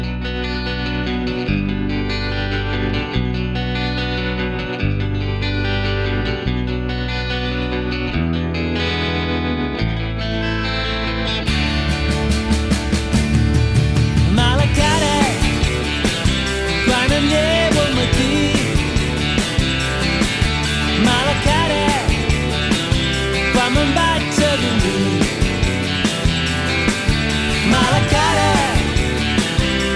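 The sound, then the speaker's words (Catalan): A recorded pop-rock song from a 2002 compilation album plays loudly and steadily, opening with a bass-heavy groove before the full band kicks in around a third of the way through with distorted guitars and driving drums. “són … i el seu …”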